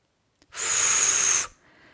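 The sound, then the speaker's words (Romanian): A Flit-brand insecticide spray can, of the kind used against mosquitoes and flies, gives a small click, then one steady, bright, hissing burst of about a second with a thin whistling edge, cutting off abruptly into a faint trailing hiss. “Exact cum atunci când folosești acest spray.”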